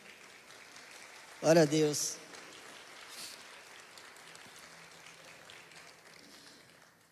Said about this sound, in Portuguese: Pode aplaudir a vida deles.